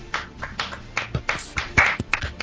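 A short round of applause: a few people clapping in quick, uneven bursts, the sharp claps overlapping into a loose patter for a couple of seconds with no voices over it.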